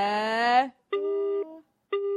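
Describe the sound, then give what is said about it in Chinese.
A mobile phone ringtone, ringing again, repeats in bursts of steady, buzzy tones, each about half a second long with short pauses between them, fairly loud and with no talking over it. “哎，怎么电话又响了啦？”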